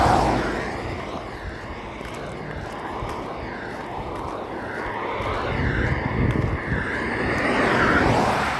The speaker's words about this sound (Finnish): Kyllä tässä jonkun verran tätä liikennettä tässä tiellä on